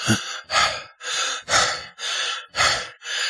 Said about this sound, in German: Ich beginne immer lauter zu atmen.